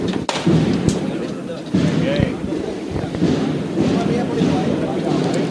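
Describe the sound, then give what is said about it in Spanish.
The canopy drapes of the Santísima de las Angustias procession float knock against their support poles in irregular sharp taps as the float is lowered and stopped in a plaza before dawn, heard over a steady, loud murmur of a crowd and voices. “Ahora se arría y parado ese sonido de esas bambalinas que chocaban con estos varales, con tantos detalles, que son un sonido más de esta madrugada.”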